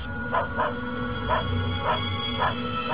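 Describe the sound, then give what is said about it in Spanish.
A dog barks over and over at night in a steady, insistent rhythm, about six sharp barks in three seconds, sounding somewhat muffled against a low background rumble. “Ya por la noche, fue el perro con sus incesantes ladridos quien puso en alerta a las dos hermanas.”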